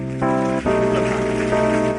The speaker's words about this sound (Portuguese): Nós agradecemos o Teu nome e aplaudimos por tudo que Tu és. Aplauda o Senhor.